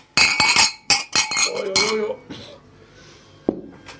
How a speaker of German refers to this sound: Du musst laut, ja, musst laut anstoßen. Äh, in dem, ja, trotzdem anstoßen. Glas an Glas, es wird hinhauen.